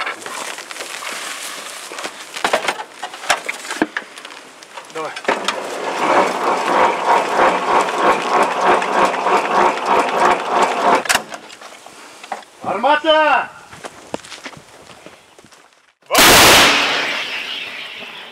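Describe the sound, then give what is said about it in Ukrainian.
Metallic clanking and ratcheting as an M37 artillery gun is loaded, followed by a single sudden, loud blast as it fires at an enemy tank. Voices murmur briefly in the background. “Гармата М37 тільки що відпрацювала по ворожому танчику.”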